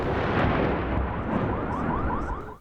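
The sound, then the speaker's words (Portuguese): Distant gunfire in the Donetsk region of Ukraine blurs into a loud, continuous rumbling roar, with a faint wavering tone riding above it before the sound drops off at the end. “Os disparos são ouvidos de longe”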